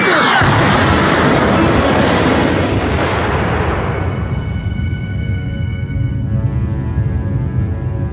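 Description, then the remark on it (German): A rocket strikes an aircraft in a loud explosion that bursts in with a sharp blast, then rolls into a long roaring, rumbling decay that fades slowly over several seconds, with no voices. “Vorsicht, eine Rakete!”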